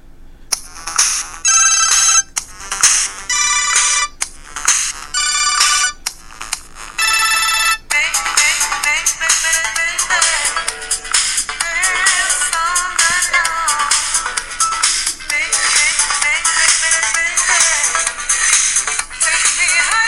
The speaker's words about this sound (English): That's the one that I have set up for my ringtone, but maybe you'd like something else. Ringing for you sounds like this.